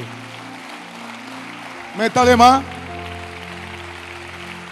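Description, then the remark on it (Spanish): An audience applauds in a steady, continuous wash of clapping, while a man briefly calls out loudly over it and sustained low keyboard tones hum underneath. “Y ese aplauso me le está faltando.”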